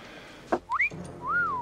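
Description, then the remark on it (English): A wolf whistle: a quick upward-sliding whistle, then a longer note that rises and falls away. Clear, with no talking over it. “What's my code? Oh, most appropriate. A wolf whistle.”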